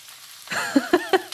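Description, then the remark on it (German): Vegetable fritters made of egg and many vegetable strips sizzle in a frying pan: after a brief quiet moment a steady hiss rises, punctuated by four quick, evenly spaced pops and crackles. “Also hier an der Stelle kommt jetzt ein kleines Brutzeln.”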